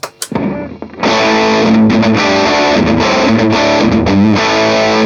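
A heavily distorted electric guitar played through a distortion pedal, with the tone turned down so the mid-range comes back, plays sustained, loud chords with a thick, saturated tone, starting after a few brief picked notes and ringing steadily with slight rhythmic changes.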